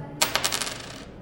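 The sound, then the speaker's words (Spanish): A new 100-peso coin is dropped onto a hard surface, giving a bright metallic clink followed by a few quick bounces and a shimmering ring that fades over about a second. “Así suena una moneda de 100.”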